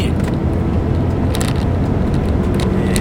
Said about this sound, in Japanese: すいません、あの、ちょっと車線変更ね、えー、苦労しました。この先、合流があります。